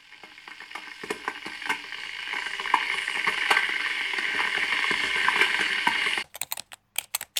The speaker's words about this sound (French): alors il y a le, le, son d'une bouilloire. Alors elle a plusieurs sens cette bouilloire.